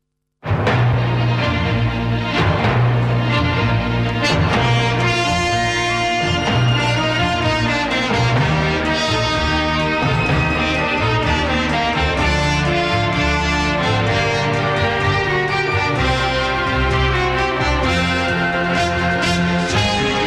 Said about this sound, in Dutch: En de openingstune, die klonk zo.